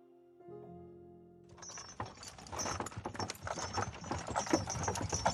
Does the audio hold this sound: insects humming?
no